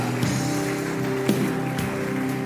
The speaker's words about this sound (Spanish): Amén y amén. Dale palmas al Señor. Aleluya.